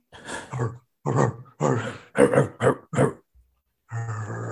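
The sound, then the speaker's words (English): Human voices mimic dogs with a run of short, gruff barks and grunts in tribute to a rapper, loud, finishing in a longer rumbling growl after a brief pause. “Get some, let me get some uh, some wolves in the chat though, real quick.”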